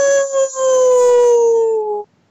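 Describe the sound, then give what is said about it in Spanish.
A single long coyote howl, steady and slightly falling in pitch, loud, holding for about two seconds before cutting off abruptly. No one talks over it. “Oh, oh, oh, no, pero no, el coyote.”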